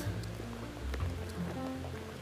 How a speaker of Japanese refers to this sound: 横に川が走ってて聞こえるかな川の音風があるなちょっと風切り音が入るかもしんない